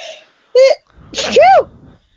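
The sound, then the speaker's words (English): A loud sneeze bursts out, a breathy rush ending in a rising-then-falling voiced cry, with brief vocal sounds just before and after. “Bless you.”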